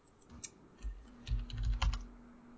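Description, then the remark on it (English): A quick burst of typing on a computer keyboard during a Google search: a few scattered keystrokes followed by a rapid cluster of clacking keys, with no talking. “It'll live Google this real quick.”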